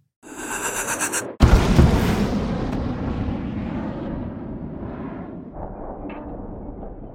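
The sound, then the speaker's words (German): A Taurus cruise missile launch: a high whine and rushing hiss, then a sudden loud blast of ignition that settles into a deep, sustained roaring rumble slowly fading away, with no voices. “Ja, das ist ein, ein Marsschluckkörper der Marke Taurus”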